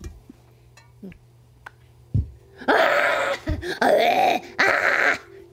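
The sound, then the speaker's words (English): A person voices three loud, strained, drawn-out wails in quick succession, imitating anguished, tortured screaming, after a quiet stretch with only a few faint clicks. “Nothing really saying anything, just screaming, okay. sounding tortured.”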